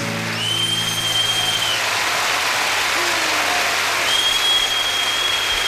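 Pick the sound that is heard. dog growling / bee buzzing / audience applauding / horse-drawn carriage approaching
audience applauding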